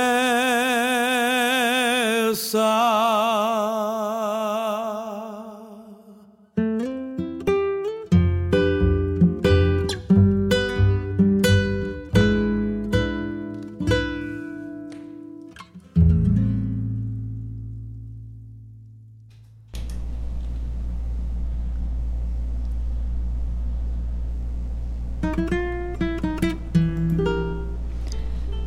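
A recorded song plays on a radio programme, opening with sustained wavering tones, then rhythmic plucked notes over a deep bass line, a brief falling pause, and a low droning passage. No singing.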